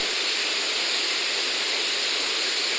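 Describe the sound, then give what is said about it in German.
A steady, unbroken, dull dark rushing noise for tinnitus, like a hiss of static, holds at an even loudness for about three seconds with no voices or other sounds. “So dumpfes, dunkles Rauschen.”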